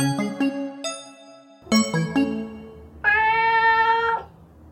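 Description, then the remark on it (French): A cat meows: a few short, bright calls in quick succession, a pause, then another cluster and finally one long, drawn-out meow. No one speaks. “Oh un chat, regarde maman, il est trop mignon.”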